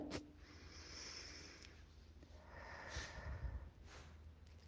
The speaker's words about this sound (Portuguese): Quando você estiver pronto, faça três respirações bem profundas. E aí a gente vai começar. Pode ser? A primeira respiração. A segunda.